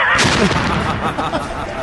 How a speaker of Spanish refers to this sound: Cuidado con esos, esos explosiones